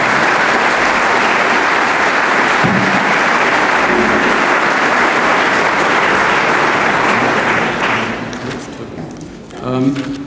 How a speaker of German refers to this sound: Herzlich willkommen. Applaus